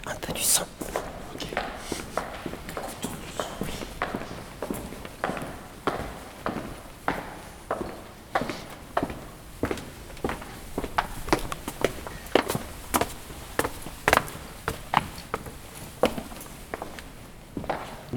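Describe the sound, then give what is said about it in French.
Steady footsteps walk at an even pace up to a lounge, each step a crisp tap, with faint voices murmuring softly in the background. “Je vous invite à monter au salon.”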